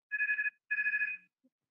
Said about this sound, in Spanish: Eh, están, sonando los, los teléfonos del estudio.